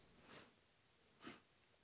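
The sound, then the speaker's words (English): Two short, breathy sniffs about a second apart, fairly quiet, with silence around them and no talking. “Sorry for the sniffles.”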